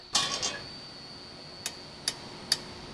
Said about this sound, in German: öffnet den Deckel